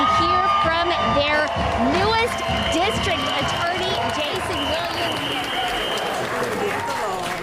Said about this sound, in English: people here tonight are getting excited. We are awaiting Jason Williams now. I'm told he's going to be here within the next five to 10 minutes, and you can hear the crowd is happy about that.